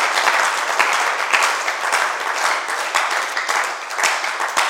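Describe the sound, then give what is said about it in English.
An audience claps for Jesus steadily throughout, a dense wash of many hands with quick overlapping strikes at a consistent, fairly loud level and no one speaking over it. “Why don't you clap for Jesus?”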